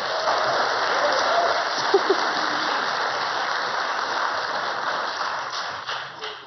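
A church audience applauds steadily for several seconds to welcome a guest speaker before the sermon: a dense, even wash of many hands clapping that thins out and starts to taper off toward the end.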